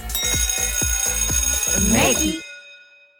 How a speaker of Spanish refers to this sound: Suena el timbre otra vez, porque eso es un tema recurrente en nuestra vida.